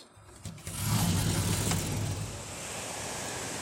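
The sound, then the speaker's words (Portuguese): Steady, dense hiss of heavy rain in Curitiba, heard through an open window, swells in after a brief quiet moment and holds loud, with a low rumble underneath like an idling car. “Nossa, tá uma puta chuva aqui.”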